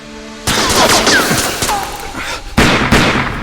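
Rapid bursts of gunfire crackle loudly and densely, shots overlapping in a sustained volley with a brief lull before another heavy burst.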